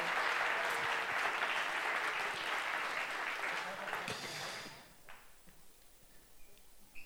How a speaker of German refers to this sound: Und damit hört die Geschichte auf und äh, ich würde sagen, wir geben unseren fünf Freiwilligen mal einen herzlichen Applaus.